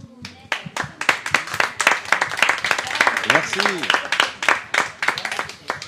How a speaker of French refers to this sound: En, tout cas, ben, on peut les, les applaudir encore bien fort.